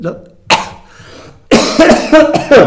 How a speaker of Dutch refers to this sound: ja, ik moet van hoesten.